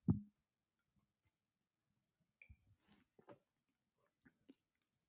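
A dull thump, then soft, scattered wet clicks and little gulping plops as someone opens a bottle and sips water from it with the microphone moved away. Quiet, with no talking.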